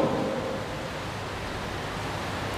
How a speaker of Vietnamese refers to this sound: nhất là ở cái cái miền Sài Gòn trở về Cà Mau thì hầu như một tuần chúng ta có đến 5 lần mưa vào buổi chiều tối rồi và thậm chí mưa rất là tầm tã như hiện nay mưa đang diễn ra ngoài trời